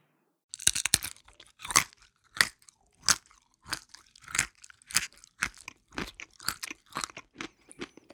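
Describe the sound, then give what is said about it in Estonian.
A tailor bites open foreign nuts taken from his pocket and chews the kernels, a dense run of sharp, dry crunches and cracks repeating every half second or so for several seconds, with no talking. “rahulikult, nagu poleks tal ühtki muret, võttis ta taskust võõramaa pähkleid, hammustas need katki ja sõi tuumad ära”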